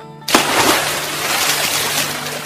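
A sudden loud splash into water, followed by a steady churning, bubbling wash that continues for a couple of seconds with no voices.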